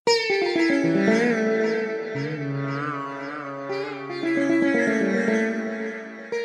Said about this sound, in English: That's the sound of a traditional musical instrument in India called the sitar. It's a stringed instrument, a bit like a guitar, but it has a really long neck, lots of strings,